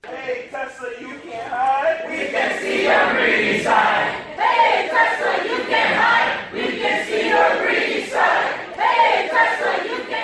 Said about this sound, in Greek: Εργαζόμενοι στα εργοστάσια της βιομηχανίας ηλεκτρικών αυτοκινήτων Τέσλα διαμαρτύρονται για τις συνθήκες εργασίας, φωνάζοντας το σύνθημα «Τέσλα, δεν μπορείς να κρυφτείς, βλέπουμε την στη πλευρά σου».